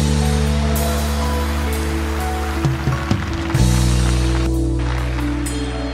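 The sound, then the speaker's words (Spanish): A large crowd applauds loudly and steadily for Psalm 23, a dense wash of clapping that fills the whole space, with sustained instrumental tones humming underneath. “El Salmo 23, si le vas a aplaudir, apláudele fuerte.”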